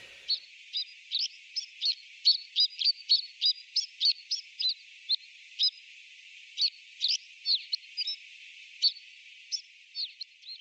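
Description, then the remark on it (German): A rapid series of short, high chirping calls of a white-winged snowfinch repeats steadily for about ten seconds, some notes bunched in quick clusters, heard clearly on their own with no voices. “Der Schneesperling”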